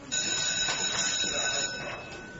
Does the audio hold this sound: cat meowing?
no